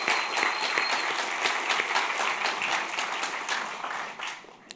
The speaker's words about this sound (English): And, and let's get one more round of applause against censorship, right?